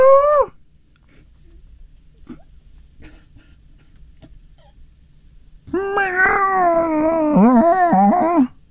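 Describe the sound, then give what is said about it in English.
A person imitates a cat's meow to test a cat-to-human translator app: a brief voiced cry at the start, a quiet pause, then a long, wavering, whiny meow, fairly loud. “So I'm going to pretend to be Big Boy. Yeah. Meow.”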